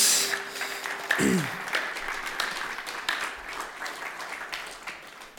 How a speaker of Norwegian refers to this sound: Gi dem en stor applaus.